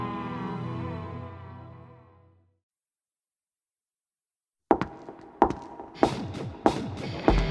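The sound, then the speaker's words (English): Thelma Todd's high heels clack sharply on the pavement of Hollywood Boulevard on a summer night, about five crisp steps at an unhurried, even pace, clear, after a fading musical tone and a couple of seconds of silence. “Thelma Todd's heels clacked against the pavement of Hollywood Boulevard, echoing in the haze of the summer night.”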